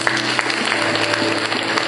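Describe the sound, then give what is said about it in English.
An audience claps steadily, many hands overlapping into a dense, even patter of applause that holds at a fairly loud level throughout, with a low hum underneath. “If you're able to clap, clap.”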